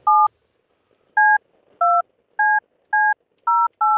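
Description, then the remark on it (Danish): A phone number being keyed in to call someone back after the call was lost: seven crisp dual-tone beeps, clear, with a longer pause after the first and then quicker, fairly even presses, faint background rustle between them. “Vi skal lige have fat på Benjamin igen.”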